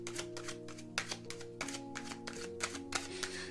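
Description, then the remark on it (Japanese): Oracle cards being shuffled in quick, papery bursts of riffling and tapping, with a few crisp slaps as additional cards are drawn and laid down in a card reading, over a soft sustained musical drone underneath. “これ一枚だけだとあれなので、もう少しこう、追加でカードを出してみますね。”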